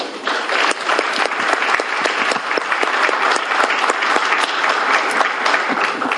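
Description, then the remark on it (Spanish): Sustained audience applause at the close of an event, a dense steady patter of many hands clapping at an even loudness for several seconds, with no voices standing out above it. “Sus reconocimientos y otro gran aplauso, por favor.”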